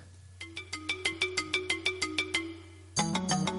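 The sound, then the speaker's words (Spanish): A phone ringtone, the ringtone of Kumamon, the mascot of Kumamoto, plays: a quick run of about a dozen bright electronic beeps in a steady rhythm, then a fuller, louder melodic chime takes over at the end. “el tono de llamada de Kumamon.”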